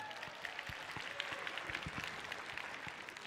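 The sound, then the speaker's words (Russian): An audience applauds steadily, a dense wash of many hands clapping with no pauses, filling the whole stretch. “Я ей передам обязательно э, ваши аплодисменты.”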